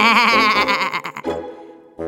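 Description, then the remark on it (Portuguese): A sheep lets out a long, wavering, loud bleat, followed by a shorter tail and a brief second burst at the end. “E o carneiro fazia Bé!”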